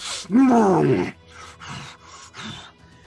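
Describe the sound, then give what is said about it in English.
A voice imitates a monster's growl: one loud, drawn-out snarling roar lasting about a second, then a few softer, breathy rasping growls trailing off, with no talking. “As he growls at you,”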